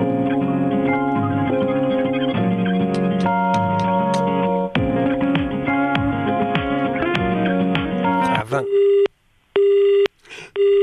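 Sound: telephone call ringing unanswered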